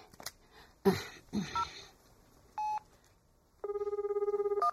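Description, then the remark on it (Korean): A mobile phone is dialed: a couple of handling clicks, short electronic keypad beeps, then a longer, rapidly pulsing tone. No one speaks. “아이고 답답하기는 그나마 좀 해만 기둘리소 내 핸드폰으로 습경이 전화 바꿔줄 테니까네”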